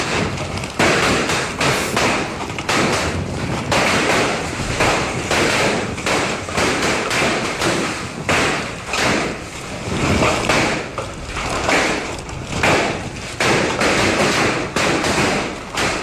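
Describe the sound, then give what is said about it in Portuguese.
Hailstones pelt hard surfaces in Mato Grosso in a loud, relentless barrage, a dense clatter of sharp thuds and taps with heavier cracks throughout, like gunfire. No voices. “Gente, eu vou colocar o áudio das pedras caindo, você que está no rádio.”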